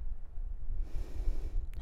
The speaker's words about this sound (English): We're going to try to practice this deep nose breathing today as we move. So do your best, set it up, smooth it out, breathing in, breathing out. Complete inhales, complete exhales, keep it flowing.